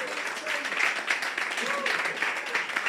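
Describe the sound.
A crowd claps hands for Jesus in a steady, dense burst of applause lasting a few seconds, with faint murmuring voices mixed underneath.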